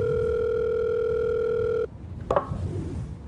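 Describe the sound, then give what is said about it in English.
A steady telephone dial tone hums for a couple of seconds, then cuts off, followed by a short click and faint rustling as a call to Mayor Dubois is placed. “Um, okay, time to call Mayor Dubois.”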